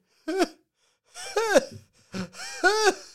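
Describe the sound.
A voice imitates a daughter's big gasping inhales after she broke her nose: four breathy, wheezy gulps of air in quick succession, each with a strained pitched squeak, loud with no talking.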